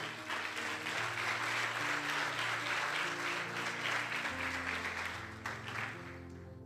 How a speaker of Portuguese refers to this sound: Quem recebe isso, diga amém. Aplauda Jesus se você crê.